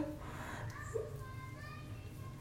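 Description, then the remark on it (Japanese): Faint children's voices chatter and call out indistinctly somewhere outside, heard over a steady low background hum from inside a bath, around 6:30 in the evening while it is still light. “うん、子供が喋ってるどこの子だろう知らない子の声ですねまだまだ明るい時間なのでそれ子供をって遊んでるかもう6時半だけど”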